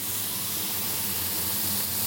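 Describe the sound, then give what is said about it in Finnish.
Shrimp sizzle steadily in a hot frying pan, a continuous crackling hiss with no talking over it. “Ravuista lähtee kyllä ihan törkeen hyvä tuoksu, kun niitä paistaa.”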